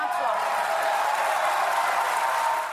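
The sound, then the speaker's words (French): Dense, sustained applause from opposition deputies in the French National Assembly, who stand on each side of the hemicycle to celebrate defeating the government in a vote on a Covid-19 health bill. It holds at a steady, loud level with a murmur of voices underneath, then tapers at the end. “Un tonnerre d'applaudissements et des députés qui se lèvent de chaque côté de l'hémicycle pour célébrer leur victoire.”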